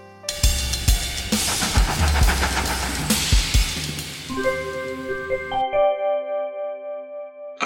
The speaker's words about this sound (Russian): Стук колес замедляется, поезд останавливается на станции «Вокзал Грозный» и шумно выпускает пар.